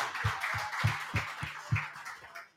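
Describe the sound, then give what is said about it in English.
A short round of applause congratulating someone going to St. John Fisher, with steady, evenly spaced claps at a quick rhythm, fairly quiet and fading out after a couple of seconds. No voices are heard. “Can we give him a round of applause for St. John Fisher?”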